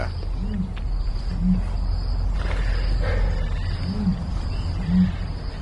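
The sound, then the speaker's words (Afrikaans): Deep, hollow booming notes from an ostrich, arriving in two pairs of low resonant hoots, with a steady hiss of crickets and insects underneath throughout. “Okay, ons eerste leidraad is mense ken nie regtig sy roep nie, maar hierdie voëls kan actually roep, jy weet, en sy roep klink so.”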